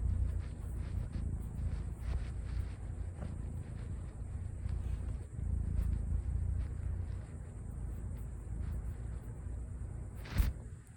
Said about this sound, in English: See if you can hear the purr right now.